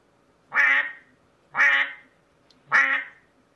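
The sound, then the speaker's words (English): A duck quacks three times in a steady rhythm, each call loud, nasal and harsh, with short quiet gaps between them and no voices. “Well, I guess that's a duck, right?”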